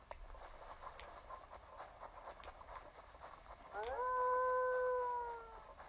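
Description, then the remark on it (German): In a video game, a wolf howls near the end, a long, loud, steady tonal call that swells in and slowly fades, following a stretch of busy, rhythmic clattering background noise. “Das ist ein Wolf.”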